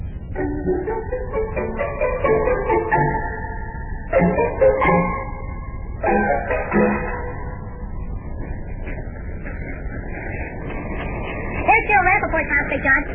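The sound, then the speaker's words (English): A car engine runs with a steady low rumble and a droning, whining tone that rises and shifts in bursts, like a car starting and pulling away. “You going out and get the car warmed up?”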